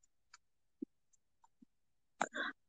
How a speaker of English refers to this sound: I have the hiccups.